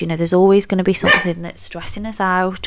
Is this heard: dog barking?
yes